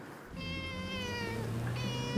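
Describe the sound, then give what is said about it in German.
A cat, a house cat of the castle in Wasserburg, lets out a long, loud, drawn-out meow, insistent, followed by a second wailing meow, with no one speaking, in a garden leading down to the Inn river. “die Katze, die da schreit, wohnt die da?”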